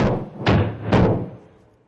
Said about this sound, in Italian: A questo punto bussarono così forte alla porta di casa che Barba Blu si fermò interdetto